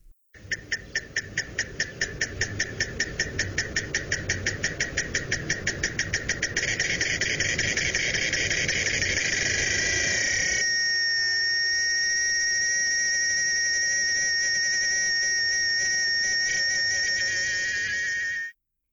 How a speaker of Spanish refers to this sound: Increíble pero cierto, esto no cambia es una característica propia de los machos chicharra.